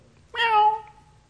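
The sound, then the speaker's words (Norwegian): A single clear cat meow, drawn out for about half a second with a slightly falling pitch, heard on its own over a faint low background hum. “Og en stakkars liten pusekatt så hadde falt ned i en brønn.”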